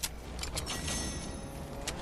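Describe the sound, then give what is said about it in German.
A vehicle engine rumbles steadily through a dense wash of noise, with a few sharp clicks and clatters on top, as two cars arrive in a video game. “kommt das Auto.”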